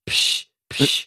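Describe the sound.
Two quick hissing bursts like an aerosol air freshener being sprayed, each about a third of a second with a short gap between, apparently made by a voice imitating the spraying of a Zabrief air freshener.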